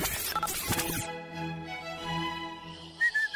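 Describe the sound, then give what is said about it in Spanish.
Someone whistles a short, clear high note near the end, brief, after a noisy burst and a long held, buzzy tone. “No chifles, por favor, no chifles”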